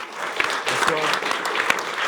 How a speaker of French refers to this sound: Tout d'abord, Mike Borowski, on peut l'applaudir, journaliste